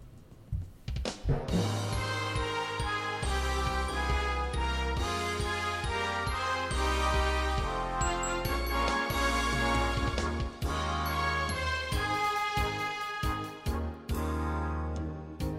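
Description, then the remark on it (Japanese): An instrumental intro to the Izu Ito High School song plays loud and full, with sustained chords, a deep bass line and bright ringing high notes, steady throughout and no voices yet. “特に、まあ、伊豆伊藤高校さんの場合ですねこのね言葉ですね、えー、これが非常に特徴的なんで、はい、えー、っともしよかったら先にこれを聞いていただいて、はい、話をしたいなと思ってますがいかがでしょうか。”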